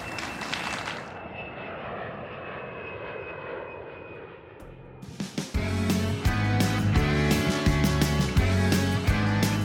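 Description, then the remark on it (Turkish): A steady airplane engine roar with a high whine at Atatürk Airport toward dawn in the late 1970s fills the first half, before rhythmic music abruptly takes over and plays loudly to the end. “1970'li yılların sonunda sabaha karşı Atatürk Havalimanı'ndayız.”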